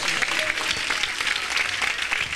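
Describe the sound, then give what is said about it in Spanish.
An audience claps for God during a sermon: many hands producing a dense, continuous crackle of applause at an even loudness throughout, with no clear voices standing out. “Dale palmas, dale palmas a Dios.”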